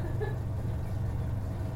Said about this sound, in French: une soufflerie. Ça paraît habité. Et climatisé. Climatisé en hiver.